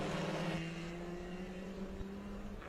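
Loud, steady roar of Caravan race car engines accelerating at Velocitar, a sustained droning whine with broad rushing noise, holding strong throughout with no voices.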